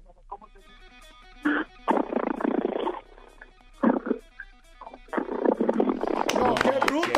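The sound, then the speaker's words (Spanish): A woman vocally mimics a motorcycle that won't start, with sputtering, revving bursts that cut out repeatedly, followed by a longer rough engine-like rumble at the end. “Pero ella se especializó en... Moto que no prende.”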